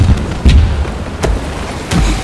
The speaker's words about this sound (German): Da dröhnen auch schon die ersten Kanonenschüsse und die Kugeln schlagen dicht vor dem Bug der Concorde ins Wasser ein.